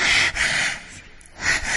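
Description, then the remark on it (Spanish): A voice imitates heavy, anxious breathing, as while watching the film Gravity: quick, loud, airy breaths, one right after another, with a short quieter pause before a final strong breath. “todo Gravity, esta era mi respiración.”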